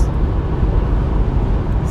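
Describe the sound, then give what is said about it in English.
A truck rumbles past on the road, a loud, steady, low roar that fills the whole moment with heavy engine and tire noise. “A truck was passing me and I let it get in the way of my thought process.”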